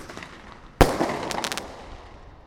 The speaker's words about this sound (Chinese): 嗯，它烟火就是这样，砰，然后再 biang。